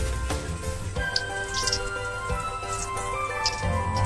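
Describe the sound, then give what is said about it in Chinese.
Glutinous rice balls, four at a time, sizzle steadily in hot frying oil in a lidded pot, the oil slightly too hot, a dense crackling hiss scattered with small sharp pops and spatters, holding a constant moderate level throughout without any talking. “哎，大家听，吱啦的声音没有？”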